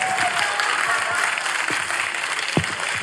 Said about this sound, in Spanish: Un aplauso, pues.